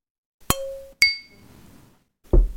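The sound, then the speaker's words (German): Two sharp clinks of drinking glasses touched together in a toast, half a second apart, each with a bright ringing tail, followed by a quieter low rumble and then a louder thud near the end, clear. “Dann können wir an dieser Stelle einen schönen Gruß da lassen und äh, auf ihn trinken.”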